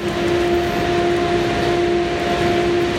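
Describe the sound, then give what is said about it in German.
Steady ambience of a busy railway platform, dominated by the continuous low drone and hum of an idling train, with a constant wash of background noise and no clear voices. “Ja, wir hatten gehofft, der Bahnsteig leert sich noch etwas, nachdem da eine Zug weg ist.”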